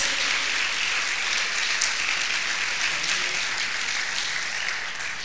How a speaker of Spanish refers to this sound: Si le va a dar un aplauso, dárselo a Dios. Gloria a Dios.